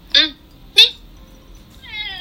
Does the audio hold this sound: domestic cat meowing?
yes